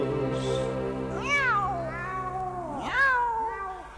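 A cat meows twice, about a second and a half apart. Each call is loud and drawn-out, rising then falling in pitch, over a steady low background hum with no talking.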